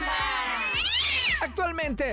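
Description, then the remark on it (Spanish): A cat meows loudly: a long, wavering, drawn-out meow that rises and falls, followed by a couple of shorter, quicker meows in succession. “Dicen, si Travis tiene suerte, algún día tendrá tanto éxito como los gatos”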